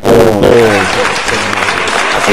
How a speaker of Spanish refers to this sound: Adiós señores, señores, aplausos, señores